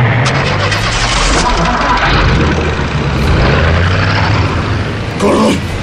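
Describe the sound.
Heavy truck engines rumble loudly, revving and shifting pitch as the trucks start up and pull away with retreating criminals, with indistinct voices mixed into the steady, dense engine noise.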